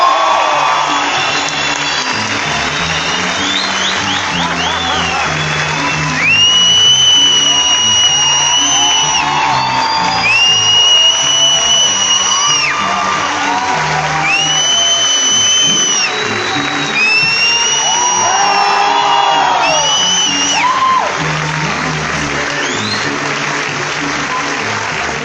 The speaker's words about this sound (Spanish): Yo quiero que ustedes me ayuden a recibir de pie con un fuerte aplauso, con la mejor actitud